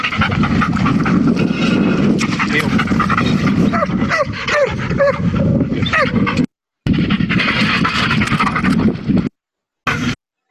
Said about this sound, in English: Oh, look, it's my dog. Get him.